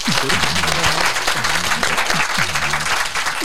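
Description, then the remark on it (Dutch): Steady, sustained applause from an audience, a renewed round of applause for Hanneke Peters, a dense wash of many hands clapping at an even loudness throughout, with faint voices murmuring underneath. “Uh, nogmaals, applaus voor Hanneke Peters.”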